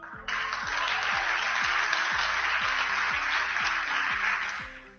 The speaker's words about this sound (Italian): Ovviamente qui Cruciani si gioca l'energia della captazio benevolenzie che ha prodotto prima, sapendo perfettamente che questa frase sarebbe stata seguita da un applauso bello nutrito, che è quello che avviene.